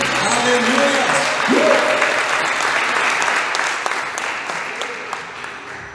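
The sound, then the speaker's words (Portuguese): A crowd claps steadily in sustained applause throughout, a dense wash of many hands, clapping to exalt the name of the Lord, with a brief rising vocal sound near the start cutting through the clapping. “Exalte mais uma vez o nome do Senhor com palmas, amém?”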